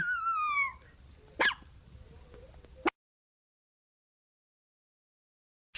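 A dog lets out a high, falling whimper, then two sharp barks a moment apart, followed by silence and a brief final sound at the very end.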